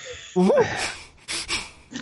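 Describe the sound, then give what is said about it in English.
A voice imitates a harsh, wheezy cough after a burning swig of whiskey: a strained vocal rasp followed by a few breathy, choking bursts, fairly loud. “so, so just like those those sort of like coughing sounds coming from her as she's looking at them and waiting.”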